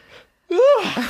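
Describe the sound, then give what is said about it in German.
A faint breath, then a single loud, voiced yawn after a twelve-hour shift that swells and stretches out before trailing off into a breathy exhale. “Boah, ich hab ja kurz mal lang gegähnt.”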